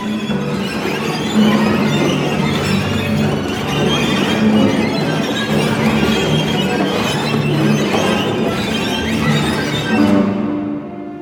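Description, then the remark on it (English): A string orchestra plays dense, loud clusters that swell and smear together, with quarter tones, sliding glissandi and shrill high tones squealing above a thick, sustained mass; the texture stays intense throughout before cutting off near the end. “It has got this amazing fluidity and poetry about it, with all the quarter tones and the glissandi and this lack of any kind of base of tonality or anything.”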